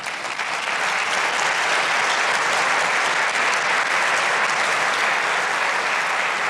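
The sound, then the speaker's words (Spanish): A large audience claps loudly and continuously in applause to the Lord, a dense, steady roar of many hands filling the room for several seconds with no pause. “Dele un fuerte aplauso al Señor.”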